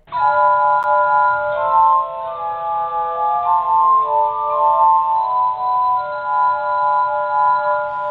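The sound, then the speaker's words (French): A glass harmonica plays sustained, shimmering tones that overlap into soft chords, the pitches shifting slowly while the sound stays steady and fairly loud throughout, with no voices. “Est-ce qu'en lui ajoutant un clavier, demeure-t-il encore un harmonica de verre”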